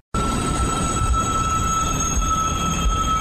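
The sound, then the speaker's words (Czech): A train carrying Ukrainian refugees rolls into the main railway station in Wrocław, Poland, with a steady low rumble and a sustained high metallic squeal from its wheels, continuous and fairly loud throughout, with no one talking. “Na hlavní nádraží ve Vroclavi přijíždějí vlaky s ukrajinskými uprchlíky.”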